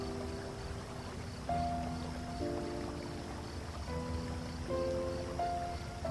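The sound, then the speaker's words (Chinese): A steady, soft wash of babbling river water runs throughout, joined by gentle sustained tones that shift in pitch every second or two; no one speaks. “你就这样放松的被潺潺的河水冲刷着”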